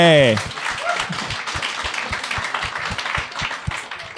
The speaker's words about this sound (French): Hey, t'as pissé vraiment vite, bravo. Bravo, très ninja, mon gars. On l'applaudit, ben oui,